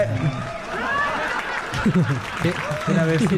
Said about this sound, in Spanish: Ya regresamos con los huéspedes. ¡Eh! aplausos y más aplausos.